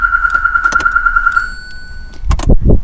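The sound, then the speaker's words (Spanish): A car alarm sounds as a loud, steady high-pitched electronic tone for about a second and a half, then cuts off, followed by clicks, shuffling and low thumping noises, heard by someone shut inside a car. “Es el nuevo set del día de hoy, estar en el carro encerrado, así bueno, acaba de sonar la alarma, entonces...”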